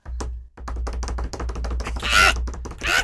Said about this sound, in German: jetzt klopfst du den mal nach.